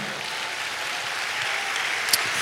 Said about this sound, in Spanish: Dale un aplauso a Cristo por eso, hermano.